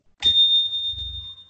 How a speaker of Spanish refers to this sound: tocamos diversos temas en un periodo de tiempo de seis minutos, al cabo de los cuales nos interrumpe nuestro querido productor con una campana que suena así.